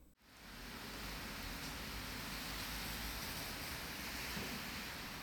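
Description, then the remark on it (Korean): A steady, dense hiss of rainfall fills the scene after a brief moment of quiet, continuous and even throughout with no voices, like a heavy downpour. “스님트임 행성의 빗소리 들으면서 마무리하겠습니다.”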